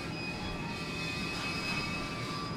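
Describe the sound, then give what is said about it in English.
A train rolls back and forth with a steady rumble, a continuous low mechanical roar with thin, sustained metallic whines ringing above it, holding an even loudness throughout with no voices. “God, this train is just like rolling back and forth, doing its train business.”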